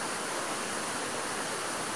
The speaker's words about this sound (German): Ich war also schon immer eine Spezialsäge und der Bergbach trieb mein Wasserrad an. Die Antriebsräder hier sind noch aus der alten Zeit. Und mit diesen musste ich noch bis 1960 arbeiten.